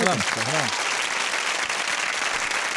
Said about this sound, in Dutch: Dat, dat, dat was echt een prima idee om een applaus te geven.